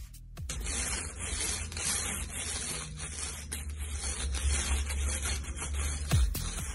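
Ice being scraped: a steady, gritty rasping that continues for several seconds with uneven strokes, coarse hiss over a low rumble, and no voices.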